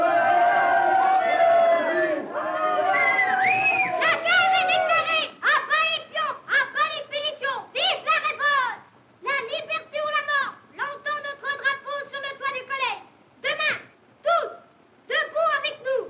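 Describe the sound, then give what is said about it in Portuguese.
A crowd of children shouts together loudly, first in a sustained clamor, then in short, rhythmic bursts like chanted cries separated by brief pauses, in a scene from a 1930s French film. “parecem miúdos na Revolução Francesa.”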